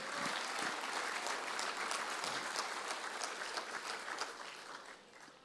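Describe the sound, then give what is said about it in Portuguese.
An audience applauds the Lord steadily for several seconds, a dense wash of many hands clapping at an even level before tapering off slightly at the end; no one speaks. “Aplauda o Senhor.”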